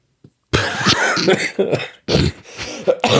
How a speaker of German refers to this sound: Ja, aber ich huste heute auch sehr schnell.